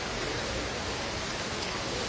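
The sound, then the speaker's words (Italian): Rushing water from the Trevi Fountain in Rome, Italy, pours in a steady, unbroken hiss, a dense wash of splashing that stays even and fairly loud throughout, with no voices. “Buonasera, spero che il rumore del, dell'acqua che, eh, che, scroscia non vi impedisca di ascoltare quello che eh, sto per dirvi,”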